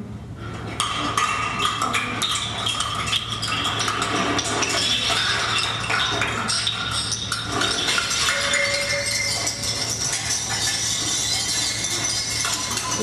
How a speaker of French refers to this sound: des petites capsules de bière en métal, etc., qu'on a balayées dans l'escalier pour donner l'impression d'objets qui dégringolent